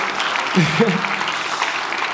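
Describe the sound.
An audience claps in a steady, dense wash of applause for a couple of seconds, with a voice briefly speaking over it partway through. A church audience applauds as a small show of thanks.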